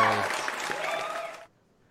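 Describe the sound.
A short burst of applause from a small group, steady, with a voice briefly audible at the start, stopping abruptly after about a second and a half.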